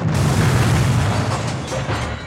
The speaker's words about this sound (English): Buck was knocked down by the explosion of the plane, but miraculously wasn't injured at all.